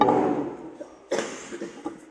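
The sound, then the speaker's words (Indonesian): A person coughs: one heavy cough, then after a short pause a second harsh burst trailing into a few smaller, weaker coughs. “udah mulai batuk-batuk lagi.”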